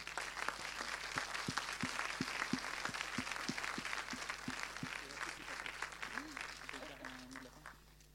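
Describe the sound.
An audience applauds steadily, a dense mix of many hands clapping with a few sharper individual claps standing out, fading slightly toward the end as a voice starts to speak.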